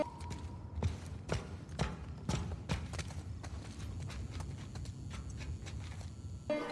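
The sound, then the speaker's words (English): Hard footsteps click steadily across a bare floor as someone descends into a basement in a video game, each step sharp and a little reverberant, echoing off the walls. Faint low rumble underneath, no talking. “Listen to the echo of your footsteps bouncing off the walls as we descend into this easy to basement.”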